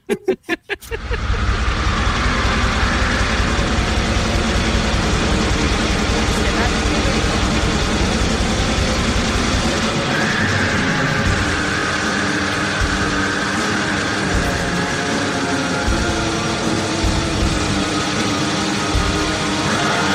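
A raw, noisy underground metal song roars in after a brief start: a dense, loud wall of distorted guitars and pounding drums with harsh shrieked vocals buried in the murky mix.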